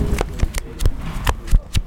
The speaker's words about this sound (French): Voilà, bon, je sais pas si, si ça s'entend. Je vais tourner le roadbook, les pages du roadbook